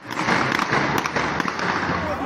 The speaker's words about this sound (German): Schüsse in der Nacht abgefeuert in die Luft von einem Motorrad aus. Eine Szene aus München.